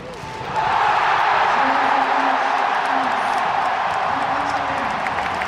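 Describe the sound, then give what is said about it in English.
A huge stadium crowd in Lille, France roars with sustained cheering and applause at the Davis Cup final for the French doubles team, Richard Gasquet and Pierre Hugues Herbert, and captain Yannick Noah. It is a dense, loud wall of sound that swells in quickly and holds steady, with scattered whistles and shouts rising above it. “Well, that is the sound of Richard Gasquet and Pierre Hugues Herbert, and of course, Captain Yannick Noah receiving the warm, the raucous applause of the crowd inside this stadium in Lille because the French doubles team have got that crucial doubles”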